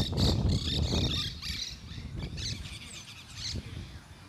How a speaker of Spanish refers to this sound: Exacto, eso dicen los pájaros.